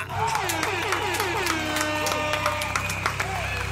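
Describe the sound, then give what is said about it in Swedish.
An applause sound effect: a crowd applauds steadily, dense clapping mixed with cheering and whoops, sustained at an even, fairly loud level throughout without a break. “Såklart så kör vi en applåd och en liten tuta på det!”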